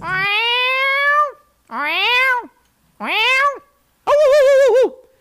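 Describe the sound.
A person imitates a cat with four drawn-out, loud meows in a row, each rising then falling, the last one wavering; short silent pauses separate them.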